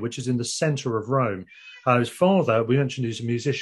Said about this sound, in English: Sorry about the cat noise in the yeah, background. I can, I can hear the mewing in the background. I sort of let her out as we speak.